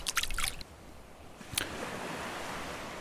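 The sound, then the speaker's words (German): A quick cluster of small splashes, then a single sharp plop as a fishing float, cast with a long rod by a person sitting on the beach of a small bay, lands in the water, followed by a steady wash of lapping water and surf in the background. “Er fuchtelt damit herum, bis er plötzlich den Schwimmer einer Angel direkt neben deinem Kopf ins Wasser wirft.”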